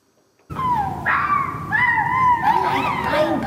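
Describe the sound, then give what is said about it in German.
A group of kindergarten children at a winter activity of the Swiss National Park imitate a fox, overlapping in high, wavering yelps and howl-like barks for a few seconds, fairly loud. “Also tönt es, wenn Kindergärtner sich damit beschäftigen, was für Laut ein Fuchs von sich gibt.”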